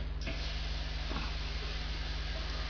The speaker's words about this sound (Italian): Questo è un rubinetto aperto.